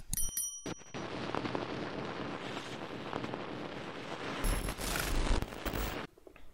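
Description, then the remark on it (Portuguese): A short intro sting: ringing bell-like tones at the start, then a dense, loud rush of noise that swells into crackling, rapid bursts before cutting off abruptly. No one speaks. “Depois da vinheta a gente te conta um pouco mais.”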